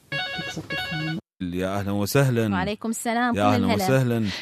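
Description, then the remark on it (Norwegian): A telephone rings in two quick, loud electronic bursts as a listener in Mosul, Iraq calls in to a radio program, then stops as the man begins speaking over a poor line. “Kveldens program, der lytterne ringer inn og forteller om livet under IS-styret og Mosul-offensiv, er blant kanalens mest populære.”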